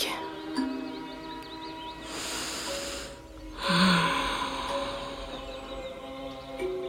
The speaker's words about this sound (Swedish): Blunda och ta ett djupt andetag.